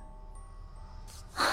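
A woman's single sneeze late at night: a short breathy intake followed by a sudden, loud, hissing burst at the very end, over a faint steady low hum.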